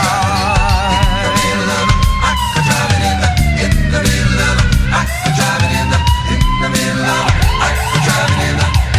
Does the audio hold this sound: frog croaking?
no